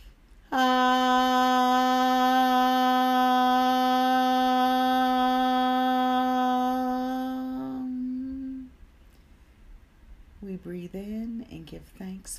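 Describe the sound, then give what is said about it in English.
A single long, steady hum held for about eight seconds, rich in even overtones, hummed on the exhale after a breath in and fading out as the breath runs low; afterward a voice begins speaking softly. “Breathe in and hum.”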